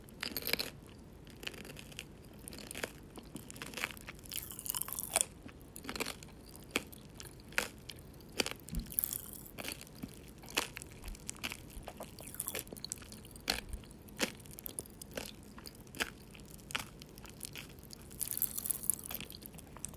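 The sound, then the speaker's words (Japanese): Chewing a square chocolate with colorful popping candy hidden inside, with many sharp, irregular crackles and pops scattered throughout, like popping candy fizzing in the mouth. No talking, just steady mouth noises and crisp snaps. “聞こえましたパチパチ感。”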